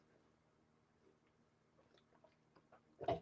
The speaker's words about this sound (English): Hold on one second. Going to take a sip out of my water.